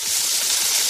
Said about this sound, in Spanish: El sonido de una hamburguesa en la sartén de una casa que ha terminado de pagar su hipoteca suena así.